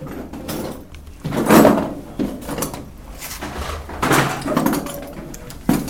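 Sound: door being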